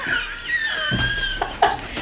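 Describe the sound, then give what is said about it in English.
A puppy whines in high, thin, drawn-out tones, broken by a few short yips near the end, with no one talking. “Make this dog sit down, please.”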